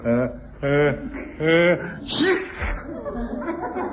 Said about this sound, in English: look, that's the sixth time you've sneezed in one minute